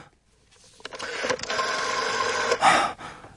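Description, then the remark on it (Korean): A telephone call being placed: after a short silence, a steady buzzing electronic tone comes in and holds for a couple of seconds, swelling briefly louder near the end before cutting off. “저 작은 아버지께 전화 좀 걸어야겠다.”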